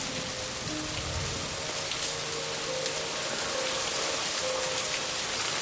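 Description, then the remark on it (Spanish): Steady rain pours down outdoors on a street, a dense continuous hiss with scattered drops pattering on hard surfaces, moderately loud and unbroken throughout, with no voices. “Entonces se pone un periódico que hay sobre una mesita en la cabeza y sale bajo la lluvia.”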